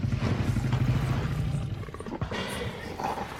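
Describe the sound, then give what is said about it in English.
A deep, ground-shaking rumble with a throaty roar from an approaching Tyrannosaurus, loud and sustained for a couple of seconds before easing into a rougher, fading growl. No one speaks. “You're about to move closer when a tremendous noise shakes the ground. The trees sway as the rumbling grows louder and louder.”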